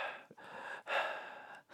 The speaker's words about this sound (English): the breathing is back. The breathing is back, ladies and gentlemen. Yes, yes. Heavy So- breathing.